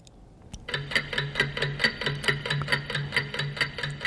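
The second hand of a clock ticks rapidly and evenly, each sharp click coming several times a second with a steady, almost hurried rhythm, clear with no voices over it.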